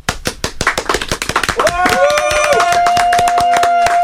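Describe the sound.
An audience breaks into dense, continuous applause welcoming a weekend-evening radio host, rapid claps layered together, joined midway by a sustained high whistle-like cheer and voices that ride over the clapping to the end.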